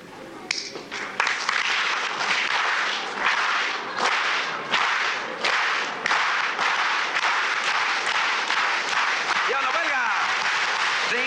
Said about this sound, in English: I wanted to start by showing you how we do the applause in our union. We do it organized because it sounds better. Let me show you. You follow me, okay?